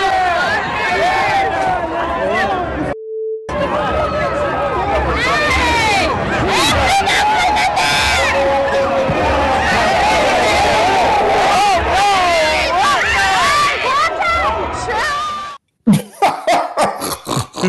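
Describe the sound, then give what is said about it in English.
Baseball fans in the stands at a Dodgers–Padres series shout, yell and fight with one another in a chaotic commotion, voices overlapping loudly and continuously before breaking into choppy bursts at the end. “But the best part of the series happened off the field. Take a look and listen to these fans.”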